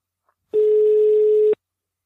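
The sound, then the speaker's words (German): A single steady telephone ringing tone, about one second long, sounds loud and clear while a call to a mobile phone waits to be answered. It stands alone with no voices around it. “Mal schauen, ob er rangeht.”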